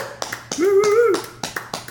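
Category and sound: human body sound, hand clapping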